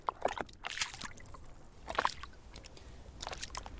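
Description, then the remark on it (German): Water sloshes and gurgles in soft, irregular splashes against the wooden body of an oud lute floating in the sea, fairly quiet, with a few brighter slaps standing out over a low watery wash. “Doch der glucksende Klang des Wassers, das sich am Holz bricht, löst auch Angst aus.”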